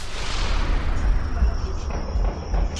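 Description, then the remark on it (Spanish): A rapid series of muffled gunshots from the shooting that killed a young girl pops repeatedly through a dense, noisy background, boomy, like a sustained exchange of fire captured on a rough phone video recording. “Ayer domingo por la tarde se subió el video donde se escucha la balacera que le quitó la vida a esta pobre plebilla.”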